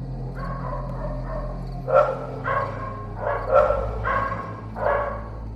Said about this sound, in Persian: بعد دو سه ساعت از خواب بیدار شدم اونم با سر و صدای واق واق کردن سگای اون اطراف نزدیک های پنج و شیش صبح بود و هوا هنو کامل روشن نشده بود خیلی غیر عادی سر صدا می کردن.